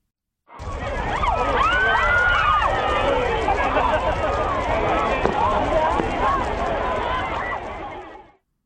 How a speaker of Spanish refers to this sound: Esto que van a escuchar son los saltos de hoguera en las playas de Valencia en 2019, el último año que se celebró la Noche de San Juan antes de la pandemia.